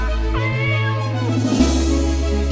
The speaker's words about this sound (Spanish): Vinagrito, ven para acá. Bichito, bichito. Ahí lo tiene, el gatito Vinagrito.